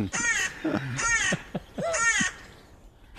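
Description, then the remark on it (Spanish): A cuckoo trying to parasitize another bird's nest gives three harsh, raspy, crow-like calls in an even rhythm, each about half a second long, fairly loud, with quiet outdoor background between them, picked up by a recorder left outdoors for weeks. “Un cuco que le intenta parasitar, ¿has dicho? Sí, los cucos son parásitos.”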